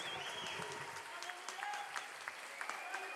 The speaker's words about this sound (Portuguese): Aplauda o nome do Senhor. Aplauda o nome de Jesus. Bendito seja o teu nome, Senhor Jesus.